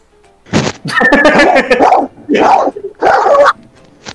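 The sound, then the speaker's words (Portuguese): A person imitates the raspy, hoarse bark of a dog that smokes Derby cigarettes, with several rough barking bursts in quick succession, loud, without any other talking. “Cachorro que fuma derby, ele imitou.”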